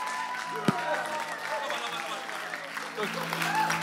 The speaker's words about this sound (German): Jetzt lass uns aufstehen und einen fetten Applaus geben